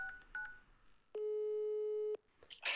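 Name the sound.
telephone ringing tone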